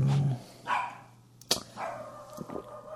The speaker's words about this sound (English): It's not like your dog ever stops barking.